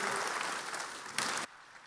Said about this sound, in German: Lass uns diesen äh, drei Leuten einen Applaus geben. Vielen Dank. Danke.